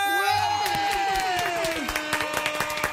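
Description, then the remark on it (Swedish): A crowd claps and cheers loudly and steadily, with whoops and a high sustained horn tone riding over the dense applause throughout, welcoming a DJ, a DJ guest. “Med det sagt, vi ger en applåd och en fucking tuta till eh, …!”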